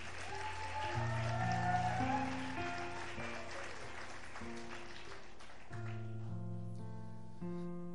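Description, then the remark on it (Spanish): An audience at a church morning service claps steadily, applauding those arriving, over sustained keyboard or organ chords for several seconds, then the clapping fades while the music keeps playing on its own. “Un aplauso por lo que están llegando, dale.”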